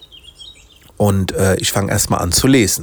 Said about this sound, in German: Das heißt, ich, direkt nach dem Aufstehen gehe ich hier auf den Balkon. Man hört vielleicht die Vögel im Hintergrund.